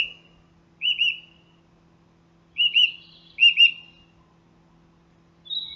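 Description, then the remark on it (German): A song thrush sings 55 minutes before sunrise in short, clear whistled phrases, some notes repeated, separated by pauses, against a quiet background with a faint low hum. “Singdrossel 55 Minuten vor dem Sonnenaufgang.”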